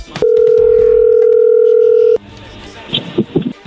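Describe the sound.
A telephone rings on the line as a call goes through: one loud, steady tone held for about two seconds, then it cuts off abruptly, leaving faint muffled sounds and voices.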